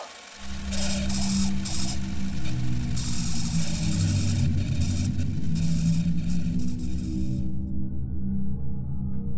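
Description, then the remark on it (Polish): A car drives steadily along a narrow forest road through mountainous terrain late at night, its engine a continuous low rumble with rough tire and road hiss layered on top until the hiss drops away near the end. “Marek i Julia jechali samochodem wzdłuż wąskiej leśnej drogi pośród górzystych terenów”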